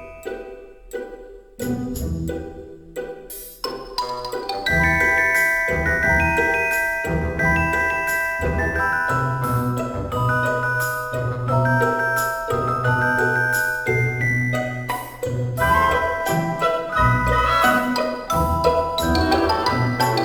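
Bright, upbeat music from the video game Mario Odyssey, with tinkling melodic lines over a steady bouncy bass, starting with a few sparse notes before the full arrangement kicks in and plays on at an even volume.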